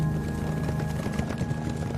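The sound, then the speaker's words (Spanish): Steady clip-clop of the hooves of two horses with a coach on a hard surface at midnight, a quick repeating rhythm of several hoofbeats, over a constant low hum with no talking. “Un coche y dos caballos le esperaban en una cueva cercana.”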